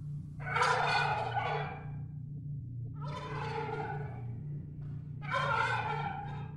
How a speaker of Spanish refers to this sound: De aquella casa se escuchó el característico sonido que hacen los guajolotes, pero parecía como si se burlara de nosotros.